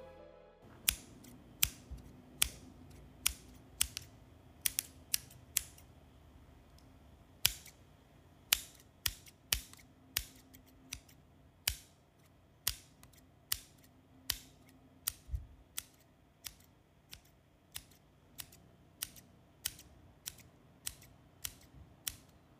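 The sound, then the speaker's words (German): Cheap scissors from a one-dollar store snip and click repeatedly, recorded for sound effects, in a steady series of about thirty sharp metallic cuts with short pauses between them, over a faint low hum and no voices. “Originalaufnahmen einer Schere.”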